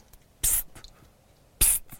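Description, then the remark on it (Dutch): Two sharp, explosive squeaks from a male snipe in courtship display flight just above the treetops, each a brief hissy burst about a second apart, fairly loud against a quiet background with no talking. “En laten ze een explosief.”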